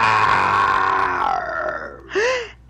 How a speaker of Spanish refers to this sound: Y en eso se oyó un gruñido terrible. Era un gran oso negro que salía del bosque.